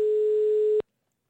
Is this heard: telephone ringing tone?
yes